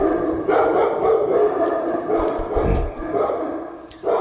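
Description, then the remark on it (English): Dogs bark over and over in loud, overlapping bursts, a steady chorus of woofs with some howling yips mixed in, filling the whole stretch without pause. “I don't know how much of the dogs barking the microphones pick up, but hopefully a lot of it because it's pretty entertaining at this point.”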